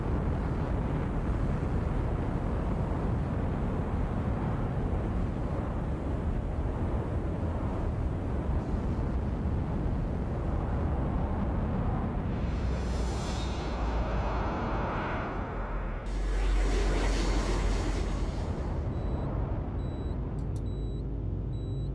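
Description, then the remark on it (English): After beeping stops, a dense, steady mechanical rumble dies down as arrays wind down, then two heavy whooshing surges, the second with a deep low thud as massive blast doors slam shut. No voices. “and then all of a sudden, the beeping stops, and you you hear as like the arrays wind down and the blast doors close.”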